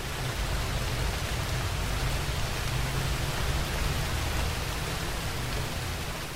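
Heavy rain pours down steadily in a forest, a dense, continuous hiss of countless drops pattering on leaves and the forest floor, enveloping, with no pauses and no voices.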